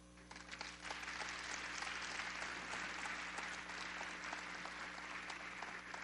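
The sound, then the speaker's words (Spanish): An audience claps steadily for several seconds during a sermon, a dense wash of many hands that holds even throughout, with no voices rising above it. “¿Le das un aplauso?”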